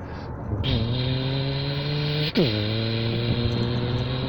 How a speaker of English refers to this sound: The sensing of the car takes place from where? The hearing of the car's engine as it shifts gears.